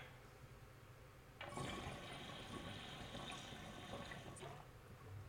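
A dry pull through a big water bubbler pipe with no nail fitted yet: a steady, hissy bubbling gurgle that starts abruptly, runs for about three seconds at even loudness, then cuts off, with no talking.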